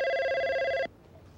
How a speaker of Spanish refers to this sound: Yacoca sonríe cuando su teléfono comienza a sonar sin parar.